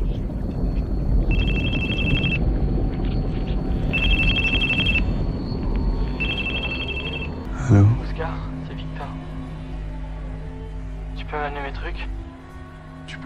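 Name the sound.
telephone ringing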